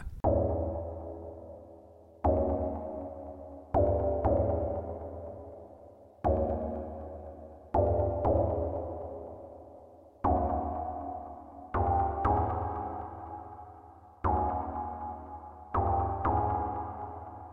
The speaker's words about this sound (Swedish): Ny jingel. Ja. Stort tack till vår nya jingelmakare.